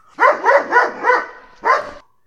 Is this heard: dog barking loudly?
yes